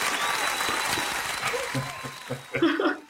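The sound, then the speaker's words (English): A crowd applauds to welcome reporter Steve Hartman on Chief Chat, dense, steady clapping that gradually thins out and fades, while a voice and a brief laugh come through near the end. “Fade applause.”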